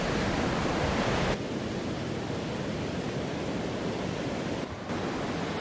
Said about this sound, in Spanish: Hay que tener mucho cuidado, las olas rompen muy fuerte acá, donde vamos a, llegar ahora. Así que voy a pedir al camarógrafo que muestre la fuerza de las olas con las que rompe el mar aquí en Iglesia de Piedra.